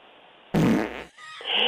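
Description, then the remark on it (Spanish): A loud, rumbling fart sound effect bursts in abruptly, low and buzzy for about half a second, then trails off into a thinner, higher squeak. “Y este, y dice, mientras eh, mi novio se da la vuelta, me lo voy a tirar y no pasa nada.”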